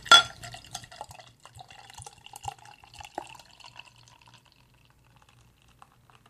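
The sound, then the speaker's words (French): A beer bottle cap pops off sharply, then beer glugs and splashes into a glass for a few seconds, the pouring gradually tapering into quiet fizz and a few drips. “c'est une de mes bières préférées, un de mes styles préférés. Donc, je vais l'ouvrir sous vos yeux ébahis.”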